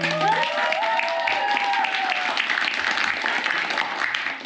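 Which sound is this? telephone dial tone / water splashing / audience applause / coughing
audience applause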